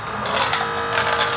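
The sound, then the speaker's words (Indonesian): A water dispenser machine running, giving off a steady, fairly loud mechanical whirring buzz that holds unchanged for the whole moment, with no voices over it. “alat anjing dispenser”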